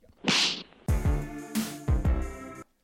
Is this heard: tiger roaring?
no